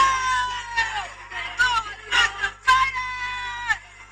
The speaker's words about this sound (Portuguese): Como é que está o vídeo da gaja a gritar, caralho? Já, eu acabei de ver um vídeo da Rita Pereira tipo a, gritar, a dançar.